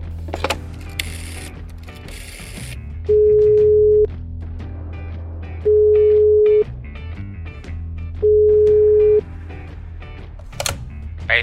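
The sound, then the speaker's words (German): Three evenly spaced ringback tones, each a steady pure beep about a second long, sound with faint handling clicks and bumps as a woman places a phone call, waiting for it to connect. “Bevor ich es mir anders überlege, ich rufe ihn jetzt an.”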